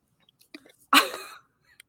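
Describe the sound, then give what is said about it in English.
A single sneeze during a recording: a few quick sharp breaths, then one loud explosive burst that fades in under half a second, followed by quiet. “We should make a new channel in Discord that either every time one of us sneezes and during recording we can post in there.”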